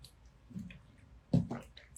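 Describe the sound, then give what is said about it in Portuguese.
A quiet sip of water followed by a short wet gulp, with soft mouth clicks and a brief swallow sound; no one speaks. “Peraí, tomar uma água.”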